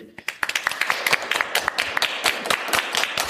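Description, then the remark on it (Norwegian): An audience at Ingeniørenes hus applauds, a dense crackle of many hands clapping steadily at a moderate level for a few seconds, with no one speaking over it. “Vi kan jo klappe for de.”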